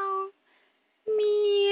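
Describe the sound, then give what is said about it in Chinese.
A voice imitates a cat meowing: two sustained, steady-pitched meows, a short one followed by a longer one after a brief pause, clear and fairly loud with no other talk. “喵，那是什么？是谷仓里的猫在伸懒腰吧？”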